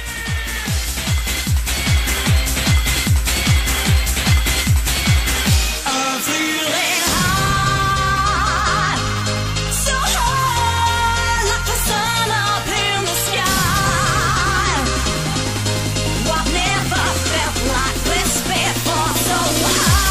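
Loud, energetic racing video game soundtrack music: a driving, steady beat, a brief break, then a full instrumental arrangement with a pulsing bass line and bright synth lines, with no one speaking.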